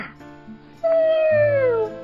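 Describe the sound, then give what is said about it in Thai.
A voice narrating the Little Red Hen tale imitates a cat's meow, a single drawn-out call that starts high and slides downward in pitch, loud and alone with no other talking. “แมวนอนหงายพึ่งแดดอุ่นๆ ปากร้องว่า”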